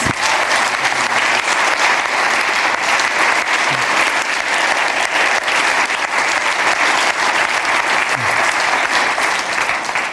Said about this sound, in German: Wunderbar, wunderbar. Gebt ihm doch einen Applaus.